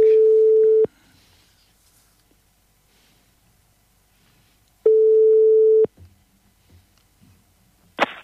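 A phone line's ringback tone while placing a call: two steady, loud one-second tones separated by about four seconds of quiet, followed by faint handling noise and a sharp click near the end.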